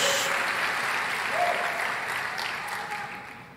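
audience applauding

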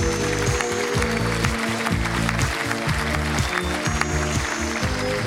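applause

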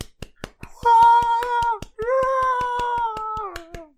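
hand clapping

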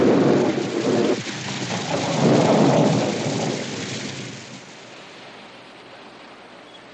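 thunder and falling rain

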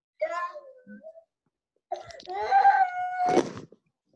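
baby crying

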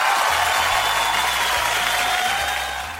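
applause

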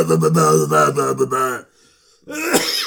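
coughing

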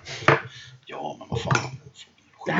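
spoon stirring coffee

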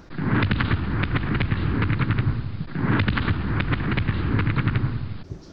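fireworks exploding

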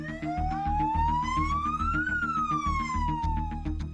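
fire truck siren

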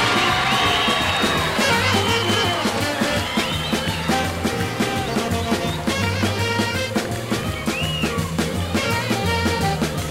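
audience applause and cheering

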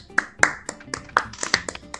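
hand clapping applause

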